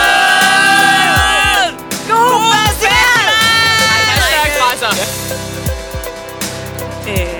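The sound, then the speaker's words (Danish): Loud, dense outdoor festival ambience at Roskilde Festival: amplified music with a steady thumping beat, layered with a crowd's voices, whoops and shouts, all blended together. “Jeg vil bare lige starte med at sige hej, øh, fordi vi er på Roskilde Festival, og vi har optaget en masse lyd.”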